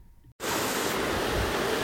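Heavy rain from a thunderstorm that has just broken out during warm-up riding for the Speedpass pours down in a dense, steady roaring hiss that cuts in abruptly after a brief moment of near-quiet and stays loud and unbroken, with no voices and no clear thunderclap.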